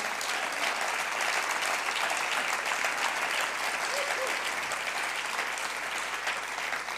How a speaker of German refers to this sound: Da können wir einfach mal Jesus einen Applaus geben.